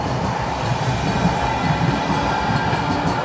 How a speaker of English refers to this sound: I like the rawness of it. Honestly, I don't yeah, even feel like stopping. Exactly. I like the train going by.